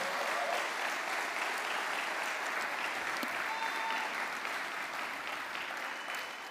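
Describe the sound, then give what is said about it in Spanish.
An audience applauds the Lord during a morning church service in a steady, dense wash of clapping that holds at an even loudness for several seconds, with no voices standing out above it. “Si va a aplaudir al Señor, apláudalo esta mañana.”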